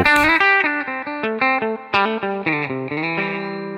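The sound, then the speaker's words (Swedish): An electric guitar played through an amp on the clean setting with light reverb, a quick melodic run of picked single notes with a warm, slightly driven tone, steady with no talking. “Helt enkelt Dreamen med lite reverb i Dreamen och”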